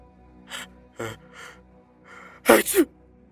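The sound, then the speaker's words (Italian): A few short, breathy spitting puffs spaced apart, then a sudden loud sneeze with a voiced burst at its end; no talking. “A onor di cronaca si dice che i fratelli e futuri amanti siano nati rispettivamente da uno sputo e uno starnuto.”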